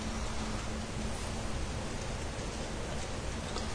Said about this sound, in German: Hier ist der Regen dann schon sehr dicht auch dran.